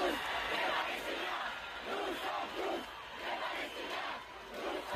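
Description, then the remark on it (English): A large crowd of thousands of pro-Palestinian supporters in France shouts loudly and continuously, many voices merging into a dense roar with rhythmic surges, like chanting at a mass protest. “a lot of Palestinian supporters in Thousands France. of people there.”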